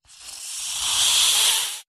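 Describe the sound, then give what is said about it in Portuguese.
A snake gives one long, steady hiss lasting almost two seconds, harsh and airy, swelling slightly louder before cutting off abruptly. No voices accompany it. “Nasci uma serpente monstruosa.”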